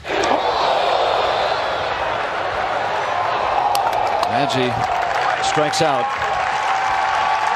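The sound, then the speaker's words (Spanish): A large baseball stadium crowd applauds a player leaving the field after failing to get his first hit. A steady, dense roar of clapping and cheering, with a few sharper whoops and brief voices rising over the wash of noise. “Desafortunadamente, no logró conectar su primer hit, pero se fue entre aplausos.”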